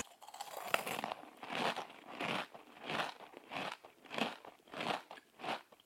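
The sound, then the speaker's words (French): Close-up ASMR-style crunchy chewing in a steady rhythm, with about eight crisp bites and crackly mouth sounds over several seconds, recorded intimately with no talking. “il s'agit d'un chuchotement, d'un crépitement, d'un bruit de mastication ou d'un mouvement délicat des mains”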